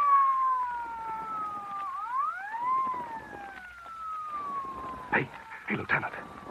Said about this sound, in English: Who's that? What chowderhead was stupid enough to use a siren? That's probably the Coleman you sir. He's siren happy.